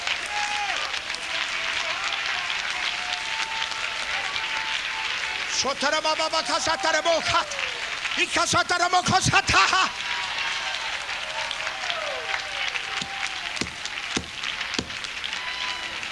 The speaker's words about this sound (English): Clap your hands, California. Magnify the Lord with me.